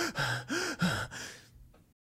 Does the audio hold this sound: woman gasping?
yes